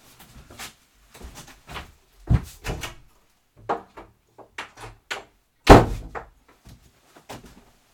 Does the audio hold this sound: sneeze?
no